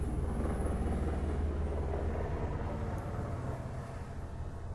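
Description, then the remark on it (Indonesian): A loud, steady low-frequency roar of an airplane flying overhead, sustained throughout with a broad rumbling drone and slight fading toward the end, no voices present. “aduh ada pesawat lewat tungguin ya.”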